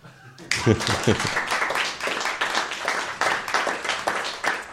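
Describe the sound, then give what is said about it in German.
A burst of hand applause for a man who gave the correct answer to a question starts abruptly and continues steadily, dense and fairly loud, with a brief voice or laugh mixed in near the start. “und ich denke, der Herr neben mir da, da hat es mal einen Applaus verdient.”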